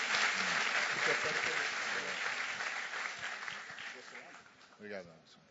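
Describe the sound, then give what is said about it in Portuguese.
A church audience applauds to welcome a guest speaker at a morning service, with steady, dense clapping that gradually tapers off, with a few voices and brief speech emerging near the end. “Vamos louvar o Senhor pela vida dele, aplauda ele e que ele seja muitíssimo abençoado.”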